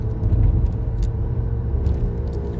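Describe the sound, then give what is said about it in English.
Heavy, steady low rumble of a truck driving past on the road, loud, swelling slightly early on and then holding, with faint high clicks and rattles above it and no talking. “That is a nice truck. Oh, did you see that? It's a steel beauty.”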